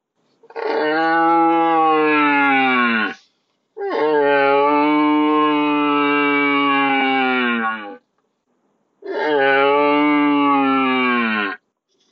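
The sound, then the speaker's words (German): A person imitates a young stag's rutting call: three long, drawn-out, high-pitched bellows separated by short pauses, loud, with nothing else in the background. “Der junge Hirsch schreit immer mit einer hohen Stimme.”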